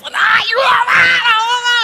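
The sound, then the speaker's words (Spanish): A voice loudly imitates the frantic, strained gasping of someone drowning and coming up out of the water, a run of high, wailing cries over about two seconds, continuous. “O sea, nadie cuando se está ahogando sale con calma, nadie sale diciendo, ay, se me metió agua. O sea, no, sales tosiendo”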